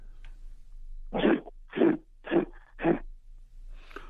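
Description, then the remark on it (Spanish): A person imitates a grizzly bear with four loud, gruff growling huffs in a steady rhythm, each rough and throaty, then a faint breathy noise at the end. “Es oso grizzly.”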